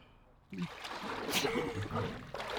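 A sudden splash breaks a brief quiet as two people plunge together into a water bath on a sunny day, followed by a couple of seconds of churning, bubbling water movement.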